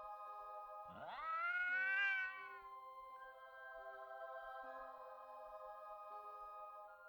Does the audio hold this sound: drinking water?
no